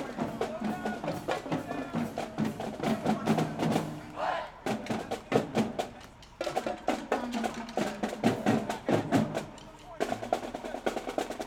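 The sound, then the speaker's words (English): Drums beat in a steady marching rhythm with a crowd murmuring and shouting underneath, the cadence pausing briefly twice before resuming, like a parade band passing at a moderate distance. “the sound of marching bands in the distance, the thunder of drums.”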